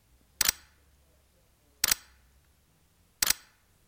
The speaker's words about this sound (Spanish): Sientan el sonido cuando el movimiento no se puede realizar.